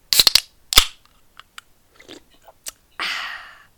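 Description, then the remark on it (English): A drink being cracked open: a quick burst of crackly clicks and a sharp pop, a few scattered small ticks, then a short, steady fizzing hiss. No one speaks. “You, you, didn't tell me you were cracking into one.”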